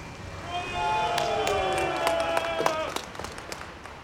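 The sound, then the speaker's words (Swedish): A gathered crowd cheers and applauds, scattered claps cracking over a sustained roar of voices, as a man at a microphone shouts "Long live comrade Stalin!"; the crowd has come to lay flowers for the former Soviet leader's birthday. “ropar mannen vid mikrofonen och de församlade åhörarna jublar.”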